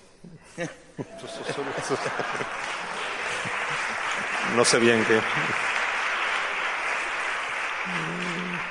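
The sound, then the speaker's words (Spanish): An audience bursts into sustained applause after an aphorism is read, a dense steady clatter of clapping that holds for several seconds while a voice speaks briefly over it at the start, midway and near the end. “Os advierto que si aplaudís cada aforismo, Tenéis que hacer lo mismo con los suyos porque si no tendremos un problema.”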